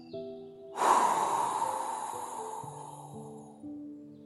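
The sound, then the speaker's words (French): A long, airy breath during a guided breathing exercise, a deep nasal inhale followed by a slow exhale through the mouth, fairly loud over soft, sustained background music tones. “Puis, expirez par la bouche pour refroidir le bol de chocolat.”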